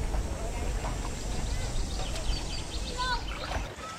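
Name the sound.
raft crossing a river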